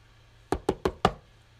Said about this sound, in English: She wouldn't stop. Obviously, whoever this was didn't understand the words not here. She knocked again.